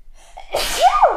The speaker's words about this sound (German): So viel zu niesen.